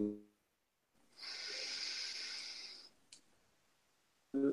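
A single deep, steady breath drawn in through the mouth to fill the lungs during a guided relaxation session, a loud airy hiss lasting about two seconds, with brief snatches of a speaking voice just before and right after it.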